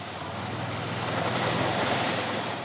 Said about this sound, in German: Gut 500 Meter etwa geht es raus auf den See. Der Wind bläst und überall sitzen Eisangler auf ihren Mini-Hockern vor ihren kleinen Löchern mit winzigen Angeln